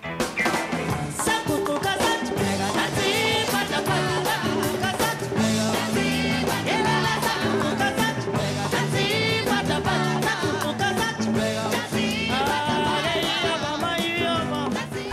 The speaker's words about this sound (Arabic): وذلك عن طريق تقديم نموذج بلغة الموسيقى العالمية قد تكونون قد سمعتم هذه الأغنية من قبل